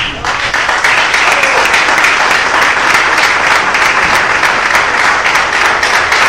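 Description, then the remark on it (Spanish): Loud, sustained applause from a crowd at an Ecuadorian Olympic Committee event, given for captain Jorge Delgado Panchana, Ecuador's Olympic chief of mission: a dense wash of many overlapping claps that holds steady at full strength for the whole stretch without a pause. “Quiero hacer público mi agradecimiento a un hombre que ha estado trabajando con nosotros en la jefatura de misión a lo largo de todos estos años y que pido un fuerte aplauso como es el capitán Jorge Delgado Panchana”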